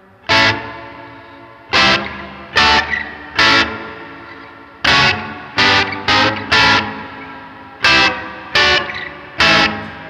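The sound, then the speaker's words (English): Electric guitar through a modulation effects pedal with its travel control set super short: about a dozen loud, distorted chord stabs in an uneven, stuttering rhythm, each ringing briefly with a warped, eerie texture. No one speaks. “Like if you want to freak out your audience, like this pedal's gonna do it for sure.”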